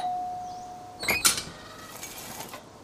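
A house doorbell rings once, a short bright chime that fades away over a second or so. A faint steady hum comes before it. The ring is fairly quiet and nobody speaks.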